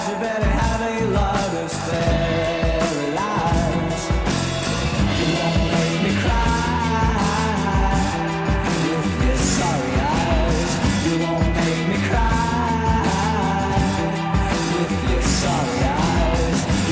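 A Britpop rock song plays at full volume, with a sung vocal line over dense, driving guitars, bass and drums that stay steady and loud throughout.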